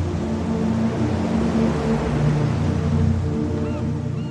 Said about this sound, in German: Die sanften Wogen verraten die Nähe zum Wasser. Ganz leise berührt das Meer das Land und zieht sich sogleich wieder zurück hörst du das sanfte Rauschen. Ein unverwechselbares Geräusch, so beruhigend und friedlich.